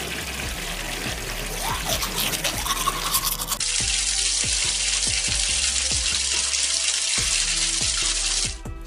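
Water runs from an open tap, first with uneven splashing, then as a steady, loud rushing stream with faint knocks underneath, before it cuts off near the end. No one speaks.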